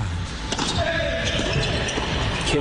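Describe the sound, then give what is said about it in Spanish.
A tennis ball is struck and bounces on a second serve in a doubles match featuring Colombians Juan Sebastián Cabal and Robert Farah, giving a few sharp, crisp pops at irregular intervals over a steady murmur of background noise. “Sonido original tenis.”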